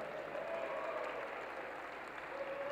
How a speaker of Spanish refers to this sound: Hombres, hombres. ya. Todos los hombres den un grito de júbilo, los que están aquí, los hombres.